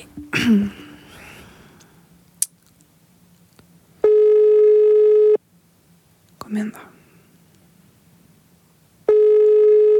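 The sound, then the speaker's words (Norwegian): A phone's ringback tone sounds twice as someone tries to call a woman, each steady buzzing beep lasting over a second with a long pause between, after a brief muttered remark and some handling noise. “Nå skal jeg prøve å ringe henne.”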